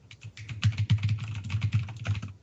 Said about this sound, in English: plays her keyboard like a, a set of drums.